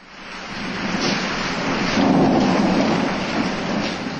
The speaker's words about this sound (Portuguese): Mas, para a aflição de todos, a tempestade aumentava cada vez mais.